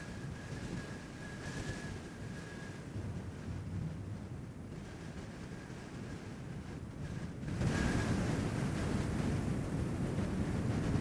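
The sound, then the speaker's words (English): A stormy roar of wind and crashing surf fills the scene without pause, then swells noticeably louder and rougher for the final few seconds. No voices are heard. “This is no natural storm.”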